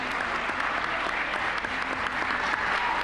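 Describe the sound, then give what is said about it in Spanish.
Sustained applause from many people in the Cámara Baja for Liberal Party deputy Vlado Mirosevich, the new president of the chamber, fills the whole clip, a dense, steady clatter of clapping hands with no pauses, loud and even from start to finish. “Aplausos para el diputado del Partido Liberal.”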